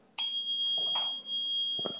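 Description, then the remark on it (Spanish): A tuning fork is struck to clear the energy of a set of cards and rings with a steady, pure high tone that sustains without fading for about two seconds, with faint handling noises underneath. “Aquí tengo un diapasón que seguramente se va a escuchar ahorita en el micrófono, que vibra, entonces limpia la energía.”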